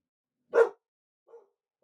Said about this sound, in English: I'm sorry that my dog cannot shut up.